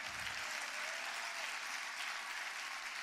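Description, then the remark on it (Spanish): A large crowd claps loudly and steadily, a dense wall of applause that holds at full strength for several seconds with no voices standing out. “Vamos, dáselo fuerte.”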